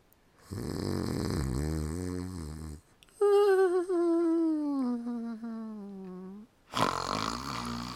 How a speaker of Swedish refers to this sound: Du snarkar. Ursäkta mig, det var du som väckte mig med att snarka just nu.